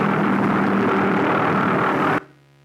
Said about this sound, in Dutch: En dit is een V1. een V1 is eigenlijk, vandaag zouden we het een drone noemen, en is eigenlijk een onbemand vliegtuig. En volgestoken met explosieven en berekend wordt afgeschoten, gelanceerd.